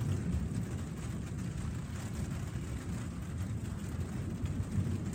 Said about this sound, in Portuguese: Está chovendo.